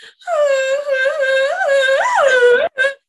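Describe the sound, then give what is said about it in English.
A voice imitates a badly played recorder, mimicking a sound from TikTok: one long, reedy, whistly tone that wavers and squeaks up in pitch a few times, then cuts off before a short final toot. “She brought out the recorder and she nailed it.”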